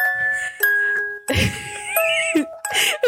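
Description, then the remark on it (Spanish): A doorbell chime rings out in a sequence of clear, sustained tones, stepping between pitches, with bursts of noisy activity and possible voices mixed in between the notes. “Oye, de hecho se escuchó en el, abrir el, audio una puerta y pensé que era aquí. Yo dije, ¿quién tocó?”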